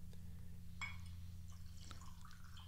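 A drink is poured into a glass, a short clink followed by a trickling fill whose pitch slowly rises, all over a steady low background hum.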